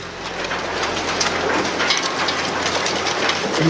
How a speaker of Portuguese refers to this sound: Alguns, alguns segundos depois dessa frase, coisa de milésimos, vocês ouvem de novo o barulho de metal sendo triturado.